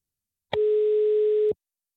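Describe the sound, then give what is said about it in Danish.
A single steady telephone ringback tone as a reporter's outgoing call rings on the other end, to Astrid Krag, former Danish elderly minister: a clear mid-pitched beep lasting about one second with sharp start and stop, heard alone against silence. “Og derfor så ringede vores reporter”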